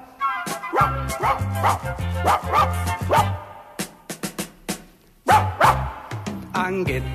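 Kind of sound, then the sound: animal, dog barking furiously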